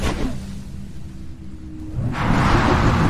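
A low rumble builds under a steady hum, then a loud, broad roar bursts in and keeps going as water explodes outward when a giant 55-foot ichthyosaur bursts into the air.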